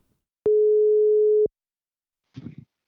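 A single steady telephone ringback tone sounds for about a second, clear, on an outgoing call to a reviewer, followed by silence and a brief muffled clatter near the end.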